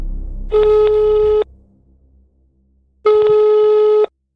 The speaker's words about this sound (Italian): società immobiliare proprietaria dello stabile che la chiama, ma trova il telefono occupato.